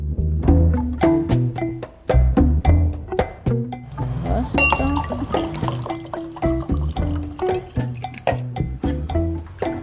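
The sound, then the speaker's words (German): Water is poured into a glass, with a steady liquid splash in the middle and frequent sharp clinks of glass against glass throughout, with no talking. “Wasser.”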